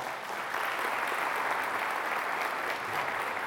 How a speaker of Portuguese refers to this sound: Cia da Vila, está aqui o pessoal da Cia da Vila, Companhia da Vila, levanta aqui, vem para cá. Uma salva de palmas para esse pessoal.